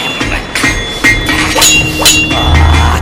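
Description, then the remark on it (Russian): Hammer blows strike heated metal on an anvil at a forge in a steady rhythm, about five loud clanging hits half a second apart, each leaving a bright metallic ring over a low rumbling background. “Скорее, скорее, не жалейте, бейте посильнее.”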